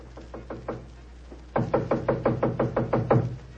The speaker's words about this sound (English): It gave me a strange feeling as I raised my hand to knock on what once had been my own living room door.